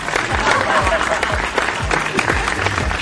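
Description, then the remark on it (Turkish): Steady, dense applause from a crowd, a continuous crackle of many hands clapping at an even loudness throughout, with some indistinct voices and cheers mixed in. “Gerçekten çok alkış hak ediyorsunuz diyeyim hadi.”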